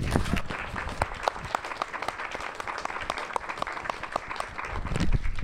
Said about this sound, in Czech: Ahoj Pavle, velký potlesk pro Pavla.